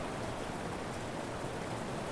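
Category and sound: nature, heavy raindrops falling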